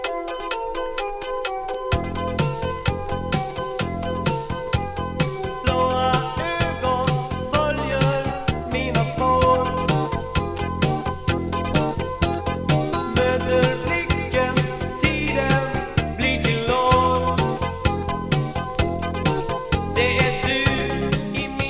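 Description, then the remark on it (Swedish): An upbeat 1985 synth-pop song plays loudly and steadily, with a driving beat, bright electronic melody lines and a thin opening before the full band kicks in. No voices talk over it. “1985, den låter så här.”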